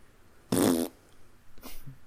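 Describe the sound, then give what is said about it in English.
A loud fart blasts right against the microphone, which a man holds up to his butt, a buzzy burst lasting about a third of a second, followed by a fainter, shorter rasp a moment later. “He, he just literally he put the microphone up to his butt and farted.”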